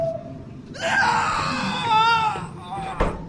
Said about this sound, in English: Well, on my way in, I heard lots of screaming. Why would that be?